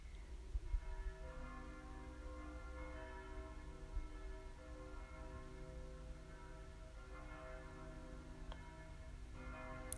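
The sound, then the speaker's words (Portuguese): Bells ring out in celebration, their rich overlapping tones sustaining and blending continuously, with a few fresh strikes layered in at a steady, moderate loudness and no voices. “Escuta o toque de sinos, de celebrações.”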